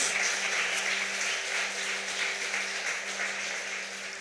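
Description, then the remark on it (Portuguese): An audience applauds loudly in praise of Jesus, a dense, steady wash of many hands clapping that continues without pause for several seconds, tapering slightly toward the end. “Receba isso em nome de Jesus e aplauda Ele bem forte.”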